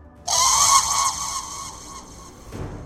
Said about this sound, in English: And as the cane comes forward, the front end of that phoenix explodes out in showers of red and orange and yellow. And there is this tremendous call of a bird.